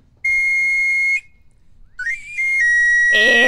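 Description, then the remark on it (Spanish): A knife sharpener's pan flute whistle plays loud: one long shrill note, a short pause, then a quick upward slide into another sustained piercing tone that ends with a rougher, noisier edge. “Ese es el sonido del afilador.”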